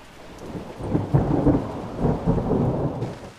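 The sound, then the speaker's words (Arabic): A thunderstorm with heavy rain pouring steadily, strong wind and lightning, and low, rumbling thunder rolling in surges, loud throughout, with no voices. “شتاء كبيره بالبزاف اللي كانت تصب والريح ما خلاش كان يمشي الريح كان كبير والبرق والرعد”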